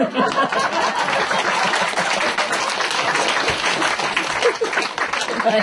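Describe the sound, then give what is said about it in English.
A crowd applauds steadily, many hands clapping at once in a dense, continuous patter that stays loud and even for several seconds without a break. “Okay, clap hands.”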